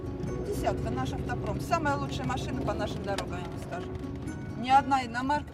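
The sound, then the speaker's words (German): A grass-green Lada drives the 78 kilometres from Volgograd to Leninsk through the southern Russian steppe on bad roads, with a steady engine and road rumble that never lets up, while people talk over the noise inside the car. “Es sind 78 Kilometer durch die südrussische Steppe in einem grasgrünen Lader.”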